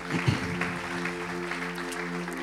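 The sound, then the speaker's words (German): An audience applauds steadily for a couple of seconds, a dense, even patter of clapping over a low steady hum, with no one speaking. “Okay, Applaus für unseren.”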